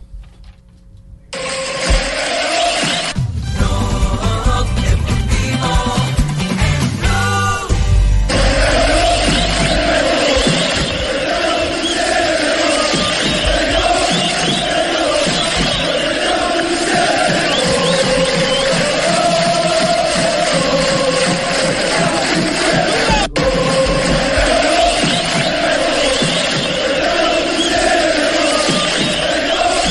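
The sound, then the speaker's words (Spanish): A large crowd of Atalanta de Bérgamo football supporters chants loudly and continuously, a dense roar of voices with rising and falling sung phrases, with a burst of engine-like rumble and clatter in the first seconds. “y esos cánticos que estamos escuchando en este momento. Son uh, los hinchas fanáticos del Atalanta de Bérgamo”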